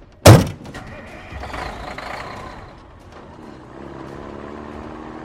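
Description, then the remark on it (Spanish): A sharp thunk as a truck's cab door is slammed shut, then the truck engine roars up and settles into a steady low rumble as the truck lurches off and pulls away. “El motor bramó y el camión dio una sacudida y se puso en marcha.”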